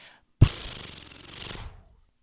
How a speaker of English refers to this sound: Here we go page turn noise.